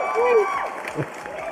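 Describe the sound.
A group claps steadily for a moment while several voices cheer and whoop over the dense patter of hands, the clapping staying moderately loud throughout.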